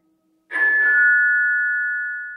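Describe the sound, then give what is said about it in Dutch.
A single electronic doorbell chime at a bungalow in Greater London, rung by a home care worker, rings out clearly, a bright sustained tone that starts abruptly and slowly fades over a couple of seconds, with no voices around it. “van de thuiszorg die bij de bungalow van zijn vader in Groot-Londen aanbelt.”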